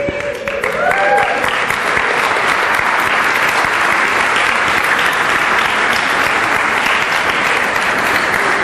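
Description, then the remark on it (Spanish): A crowd bursts into loud, sustained applause, dense clapping that swells within the first second and holds steady to the end, with a few faint voices in the mix. “Qué, qué, chistoso que digo pachanga y todos aplauden, ¿no?”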